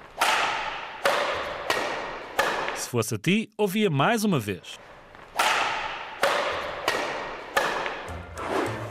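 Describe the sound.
Badminton shuttlecock strikes: about ten crisp, snappy whacks in a steady back-and-forth rhythm, paused briefly while someone speaks in the middle, then the rally resumes.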